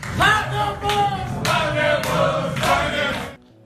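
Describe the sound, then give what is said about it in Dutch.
A rowdy group of male voices, Manchester City players, loudly chants a song in unison mocking José Mourinho's tactics with "park the bus", with a few short breaks between lines before it cuts off abruptly. “Ja, park de bus, zongen ze dus.”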